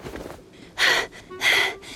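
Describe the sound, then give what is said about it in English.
Two heavy, breathy exhales a half-second apart, loud, with a softer breath before them: Foxy panting while collapsing on top of a huge chunk of coral under the sea after looking for treasure. “Panting, Foxy collapsed on top of the coral.”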